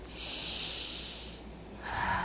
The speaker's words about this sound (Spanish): Y sigo respirando y sigo soltando ese aire. Y cada vez que suelto ese aire, yo me siento más y más tranquilo, más y más tranquila, más y más en paz, en armonía.